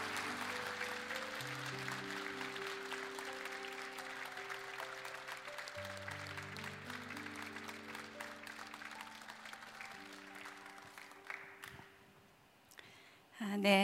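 A church audience applauds to bless a missionary before her testimony, with steady, dense clapping over sustained low keyboard chords; the clapping thins and fades near the end before a short burst of noise.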